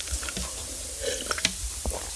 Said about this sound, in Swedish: Nu måste jag ta lite vatten, förlåt.